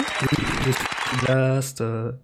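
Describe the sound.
A short burst of brisk clapping, dense and noisy, mixed with talking for about a second before a voice takes over with drawn-out, sustained tones.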